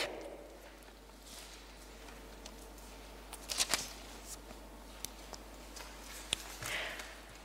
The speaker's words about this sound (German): Müssen wir jetzt nicht aufschlagen. Okay, ihr blättert schon. Gehen wir kurz dahin.